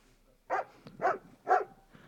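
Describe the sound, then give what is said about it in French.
A dog barks three times in a steady rhythm, each bark short and fairly loud, with quiet background noise between them; a real dog greeting visitors at the ticket window of a dog cemetery. “Au guichet, un chien en chair en os vous souhaite la bienvenue.”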